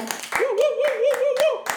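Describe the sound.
About seven sharp hand claps land in a steady, even rhythm, while a voice holds a sustained, wavering tone underneath them the whole time.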